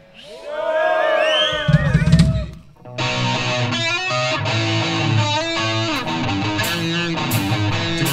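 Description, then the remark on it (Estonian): An audience shouts and cheers together, loudly, in response to being asked who had a good day today. After a brief dip, a dense, steady wall of sound carries on until the end. “aga öelge mulle vähemalt eh, oma häälega karjudes, kellel läks täna hästi?”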